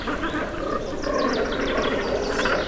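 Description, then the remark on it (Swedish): A bird colony chatters constantly, many overlapping calls blending into a dense, steady wall of sound with repeated sharp chirps standing out, fairly loud, with no one speaking. “Och sen kan vi höra ett konstant ljud, chatter därifrån.”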